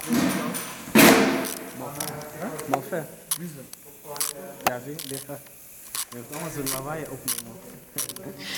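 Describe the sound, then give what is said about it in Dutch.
Sounds from car bodywork classes in a workshop: sharp, irregular metallic clanks and ratchet-like clicks recur beneath steady conversation, with one loud bang early on. “We luisterden naar de richting carrosserie.”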